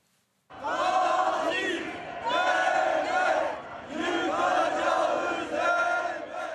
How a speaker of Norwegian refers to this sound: Vi vil ødelegge morderstaten, ropte hundrevis av demonstranter som hadde tatt til gatene i Istanbul i går kveld.